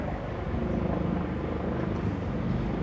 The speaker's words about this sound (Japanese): めっちゃヘリコプター来たけど音聞こえますどうなんだろう一応ね iPhone のボイスメモって結構優秀でいらない音は省いてくれるんですけれどもそうめっちゃねヘリコプターが タイトルとこの何ですかスポンサーコールの間にずっとねヘリコプターが来てる状況なんですけど